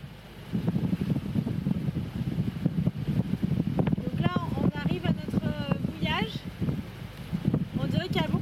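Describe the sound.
Steady wind roars and buffets across the deck of a sailboat, blowing almost head-on, a thick, low rumble that never lets up, with voices speaking faintly beneath it as the crew prepares to roll up the genoa sail and turn with the wind behind them.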